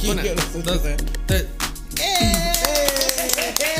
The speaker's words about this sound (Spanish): Ah, no, eh, comenzamos con los aplausos, ¿verdad? Sí. Vamos a empezar de nuevo, ¿ok?